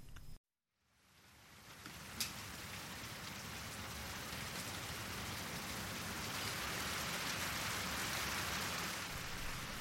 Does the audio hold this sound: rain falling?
yes